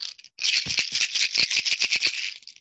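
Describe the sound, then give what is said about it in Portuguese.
A bottle of antiretroviral pills, the speaker's daily doses, is shaken in a quick run of rattles lasting a couple of seconds, sharp clicking bursts over a steady bright hiss, with no voices. “Esse barulho é o barulho do meu antirretroviral é o barulho das minhas doses diárias de vida.”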